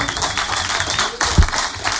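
An audience applauds a singer after a live morning performance of a song, a dense wash of many hands clapping at once, holding at an even loudness throughout with one slightly louder burst partway through.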